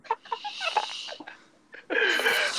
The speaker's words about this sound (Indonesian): lu kenapa sih narik nafas mulu